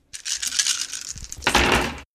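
A handful of twelve dice, rolled for an attack in a game, rattles and clatters continuously for about two seconds, fairly loud, swelling into a heavier tumble just before stopping abruptly. No one speaks.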